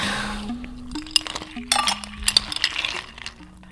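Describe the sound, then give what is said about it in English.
Ice cubes clink and clatter into a glass of vinegar syrup and water in a quick, irregular run of bright hits, with a low steady hum running underneath. “Actually, plenty of ice.”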